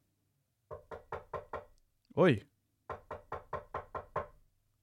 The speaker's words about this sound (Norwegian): På sånn lett banking. Ja, akkurat som sånn, noen banker på døra eller noe.